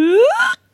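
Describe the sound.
A single short vocal squeal from one person sinking into cold water, a voiced 'ooh' sliding sharply upward in pitch over about half a second, loud, then cutting off into silence.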